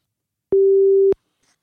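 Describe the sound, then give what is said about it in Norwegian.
A single steady electronic beep of a telephone ringing tone as a call is placed to a lawyer, about half a second long, sounding clearly on its own with silence around it and no one talking. “Da ringer vi henne, rett og slett.”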